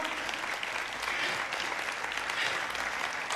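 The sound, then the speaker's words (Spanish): Steady, dense applause from a large audience welcoming a guest, loud and continuous for the whole stretch, with a faint murmur of voices underneath. “Ayúdame a darle una fuerte bienvenida”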